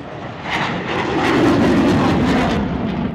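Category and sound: vehicle, fighter jet flying over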